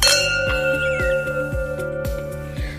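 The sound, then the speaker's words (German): Wine glasses clink together once at the start, leaving a bright, sustained ring that slowly fades, with a soft, steady rhythmic beat of background music underneath. “Ich bin auch sehr gespannt und deswegen stoßen wir jetzt erstmal an.”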